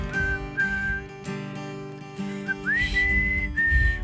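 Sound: person whistling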